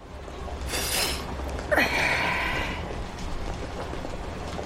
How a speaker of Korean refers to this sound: 당신은 코를 한번 훌쩍인다.